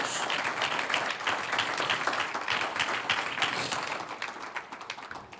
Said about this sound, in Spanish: Los santos son ungidos de Dios. Un aplauso los ungidos de Dios.